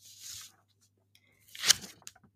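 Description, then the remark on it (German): A soft papery swish near the start, then a louder crisp rustle of a book page being turned, with a few small paper flicks trailing off. No one speaks. “So, nochmal umblättern.”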